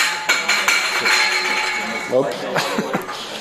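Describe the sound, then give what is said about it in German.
Metal cutlery clinks and rattles repeatedly as pieces are handled and sorted, with bright ringing chimes and irregular taps, while faint voices murmur in the background. “Da wird jetzt gerade Besteck sortiert.”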